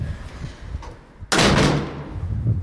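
A handsome wooden door, used to enter a building, is handled, ending in a single loud, sharp thud as it shuts, followed by a short resonant tail and background noise.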